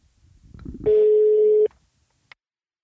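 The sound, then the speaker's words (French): A single steady ringback tone from an outgoing phone call sounds clearly for just under a second, following brief low talk, then cuts off abruptly with a faint click afterward. “là je suis en train de lancer l'appel pendant que je vous parle et vous savez quoi, je, crois que elle, elle sait que je vais l'appeler et qu'en plus j'enregistre dès maintenant.”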